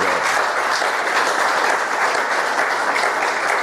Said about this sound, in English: applaud